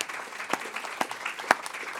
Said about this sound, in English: But um, uh, can we give a round of applause to our panel panelists